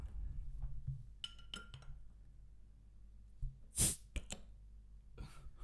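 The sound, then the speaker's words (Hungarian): A beer bottle is opened with an opener: a few metallic clinks against the glass, then a short, sharp hiss-pop as the cap releases, followed by light clicks. “Ilyen a új, új intrót akarunk. sörnyitással.”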